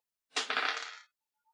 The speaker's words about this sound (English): all right. Roll that dice.